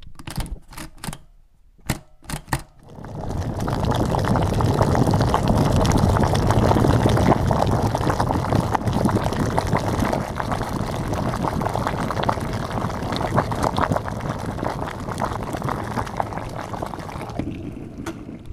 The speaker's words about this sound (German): Und Sie hören es schon, das Wasser brodelt im unteren Topf und wenn das Wasser kocht, dann kann ich den mittleren Topf draufsetzen und das Sieb.